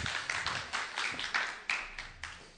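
A short round of applause: a small group clapping unevenly, with sharp bright claps overlapping in an irregular patter for a couple of seconds, fairly quiet and without talk.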